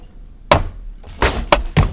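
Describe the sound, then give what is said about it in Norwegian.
Four sharp knocks as a ladle strikes the hard shell of an egg, hacking at it from inside to get out. The knocks are spaced irregularly, with a slight crack to each hit and quiet pauses between them. “Jeg tar en sleiv, og så prøver jeg i hvert fall å begynne å, å hakke Jeg har hatt en hammer på benken.”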